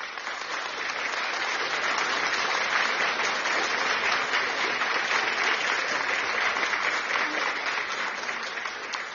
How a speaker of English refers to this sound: Glory to God. Give a clap of offering.